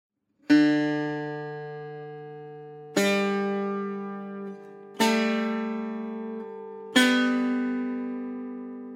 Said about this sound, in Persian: همین چند تا نوتی که شنیدید این نوت ها این زیر و بمیایی که میشنوید رو قالب ریتم میشینن و موسیقی به وجود میاد